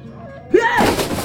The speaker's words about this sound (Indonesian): Anda dobrak pintu pembantu.